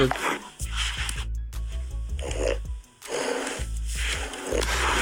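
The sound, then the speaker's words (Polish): An English bulldog snorts and grunts in a string of raspy, wheezing bursts separated by brief pauses, played back from a phone and sounding slightly tinny. “Taki odgłos wydaje bulldog angielski, jakby kogoś to interesowało.”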